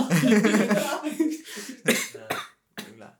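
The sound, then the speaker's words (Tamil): A close, loud fit of coughing: several harsh, rough bursts in quick succession, trailing into a couple of shorter coughs after a brief pause. “corona இல்லை மக்களே”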